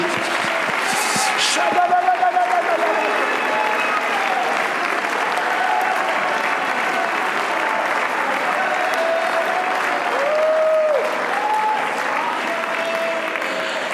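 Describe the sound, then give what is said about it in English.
An audience all across a church sanctuary claps steadily and densely for over ten seconds, a sustained wash of applause with a few loud individual claps early on, and scattered voices calling out beneath it. “Oh, everybody all across the sanctuary, clap your hands.”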